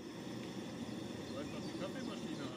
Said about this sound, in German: So, ihr hört's. Kaffee muss sein in der Bialetti. Glaube ich, heißt Bialetti. Heißt die Kaffeemaschine Bialetti?